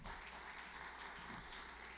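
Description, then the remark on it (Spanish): An audience applauds for the Lord during a church service, a dense, steady wash of many hands clapping that fills the whole two seconds without a break, with no voices over it. “Le doy un aplauso al Señor ahora.”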